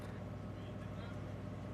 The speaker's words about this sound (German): Eine Baustelle in Fürth. Hier werden Glasfaserkabel für schnelle Telefonanschlüsse verlegt.